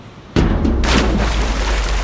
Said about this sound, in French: c'est la tour d'exposition haute de 300 pieds qui s'écrase dans la mer.